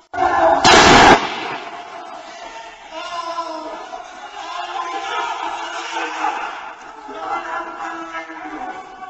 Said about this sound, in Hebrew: וזה לא סתם, כי, כי הוא באמת נתן את נשמתו, הוא נורה על ידי שוטרים. נכון, מה ששמענו זה ירייה, ואחריה המפגין שצועק ג'אנם פדאיה איראן, נשמתי קודש לאיראן. והוא מת.